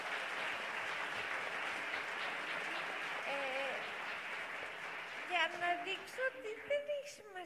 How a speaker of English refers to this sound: Thank you, thank you for the applause.